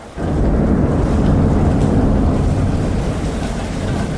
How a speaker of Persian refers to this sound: بیرون صدای ریزش باران و رعد و برق کولاک می کند